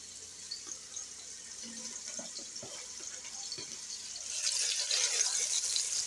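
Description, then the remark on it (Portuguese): A steady, bright hiss with scattered little pops and crackles, a frying sound effect like food sizzling in a pan, growing louder and fuller in the last couple of seconds. “Ó, aí voltando barulho ao... de fritura, hein?”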